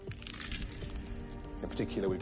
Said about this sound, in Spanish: No es fácil resistirse al crujido de las patatas fritas, Mucha gente siente debilidad por algunas comidas con un sonido característico, aunque este no aporte ningún beneficio nutricional.